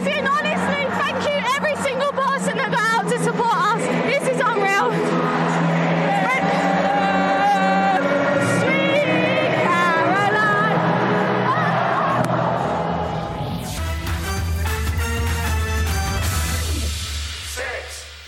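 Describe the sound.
A huge stadium crowd sings together in loud, sustained unison, a dense wall of voices that gives way near the end to rougher cheering and shouting.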